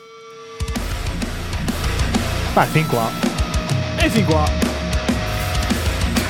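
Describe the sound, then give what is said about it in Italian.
A loud, dense wall of heavy death metal kicks in abruptly after a brief quiet moment and keeps pounding steadily, while a voice talks over it throughout. “Cioè, death metal alla fine.”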